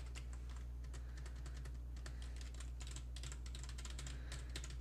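Rapid, continuous typing on a computer keyboard on the Hacker Typer website, with dense clusters of key clicks over a steady low hum, fairly quiet, with no voices.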